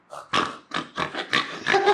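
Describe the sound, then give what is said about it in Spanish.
A voice imitates a flat-faced dog's labored breathing: five or six harsh, raspy snorts in an uneven rhythm, loud and grunting like a pig, with no words spoken. “Y el pinche perro suena así”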